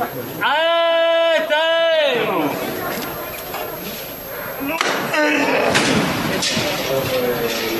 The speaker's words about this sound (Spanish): Ahora va a tocar martillo